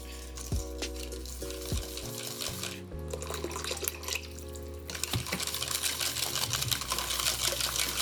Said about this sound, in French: Donc là je mélange quand même assez fort pour éviter d'avoir des grumeaux. Sachant que de toute façon, avec nos farines modernes, on a quand même de moins en moins de grumeaux, du moins qu'on mélange bien euh, tous les ingrédients ensemble.